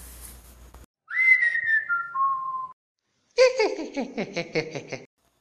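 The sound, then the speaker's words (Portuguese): A long, sliding whistle drops in pitch over a couple of steps, then after a pause comes a rapid, pulsing burst of high cackling cries, all fairly loud. “O curupira, escondido entre as árvores, grita e assobia até enlouquecê-los de tanto medo.”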